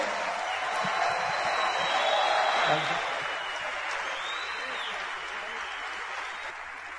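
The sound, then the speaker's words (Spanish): Sustained applause from an audience, a dense wash of clapping that swells slightly in the first few seconds and then holds steady, with faint crowd murmur underneath. “Vamos a darle un aplauso a ambos bien grandote.”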